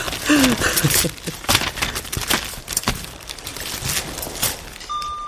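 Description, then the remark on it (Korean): A stiff bag zipper is tugged open in short, uneven bursts of scratchy rasping, stopping and catching between pulls. It sounds moderately loud, with no talking. “지퍼가 뻑뻑하잖아. 단번에 끝까지 온 적이 없다니까. 몇 번이나 삐걱삐걱 소리를 내면서 멈춘다고.”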